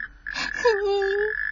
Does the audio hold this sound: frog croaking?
yes